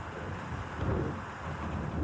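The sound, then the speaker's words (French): Steady wind blowing outdoors, a low continuous rumble and rush with gentle swells in strength, moderately loud and unbroken, with no voices present. “Un bête canapé en cuir beige et usé, des murs d'un blanc plus pur que de la neige, et un silence oppressant, terni simplement par le vent qui souffle dehors.”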